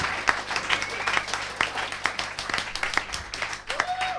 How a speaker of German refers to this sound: Es ist schön, dass ihr so toll klatscht